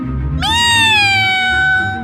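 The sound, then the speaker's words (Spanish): A single long, drawn-out cat meow that starts abruptly, then slowly slides down in pitch and holds steady, loud over a low rumbling background. “¡Miau!”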